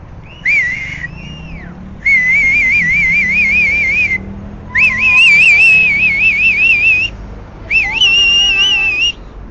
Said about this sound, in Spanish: Ya escucharon unos chiflidos. Vamos atentos.